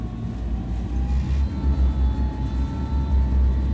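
A tracked armored fighting vehicle with a 35 mm cannon on top races past, its heavy engine rumbling deep and loud with a steady high whine riding on top, the noise surging and pulsing throughout, making the ground shake.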